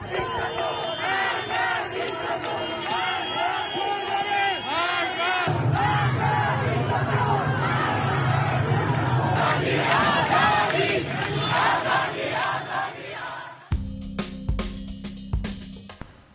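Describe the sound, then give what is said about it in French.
An angry crowd at protests against the Iranian regime shouts without pause, many voices chanting and yelling together at a loud, steady level, with the scene cutting abruptly twice to different bursts of the same furious crowd. “Je vous propose d'écouter des sons qui étaient enregistrés lors de quelques-unes de ces manifestations et vous allez voir, il n'y a pas besoin de parler le farci pour comprendre la colère de la foule.”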